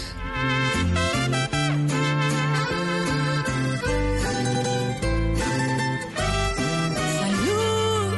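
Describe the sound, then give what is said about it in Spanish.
Instrumental opening of a singer's newly released song: a full, loud band with steady bass notes and bright sustained melody lines playing continuously, with no singing or talking yet. “Les mando un beso, un abrazo y recomendarles este, mi más reciente lanzamiento. Salud por él, que lo disfruten.”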